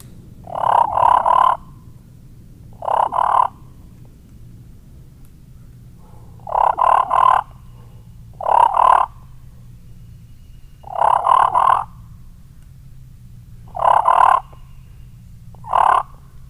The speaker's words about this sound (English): It's a hen.